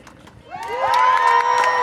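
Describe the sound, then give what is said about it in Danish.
A crowd at a rally for equality in the labour market erupts into cheering and shouting, swelling within half a second into a sustained roar of many voices with high whoops rising above it, loud. “Så, kære venner, er I klar til at råbe op for ligestilling på arbejdsmarkedet?”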